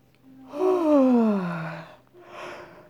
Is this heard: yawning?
yes